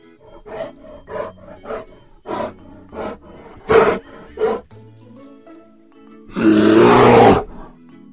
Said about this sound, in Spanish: pero justo cuando mamá zarigüeya iba a gruñir, un verdadero viejo gruñón salió del bosque y dio el gruñido más feroz que Pepe jamás hubiese escuchado.